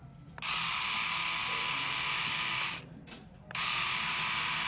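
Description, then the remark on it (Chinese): An electric shaver bought from JD.com switches on with a loud, steady high-pitched buzz, louder than the same model bought from Pinduoduo. It drops off briefly after a couple of seconds, then starts buzzing again just as strongly. No one speaks. “感觉京东的声音更大。”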